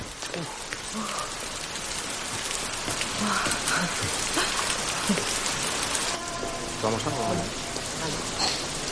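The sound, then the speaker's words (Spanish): Heavy rain from a big storm pours down steadily in a dense, constant hiss, with faint murmuring voices and a few scattered clatters beneath the downpour. “Más tarde cae una gran tormenta y entran en un bar para refugiarse.”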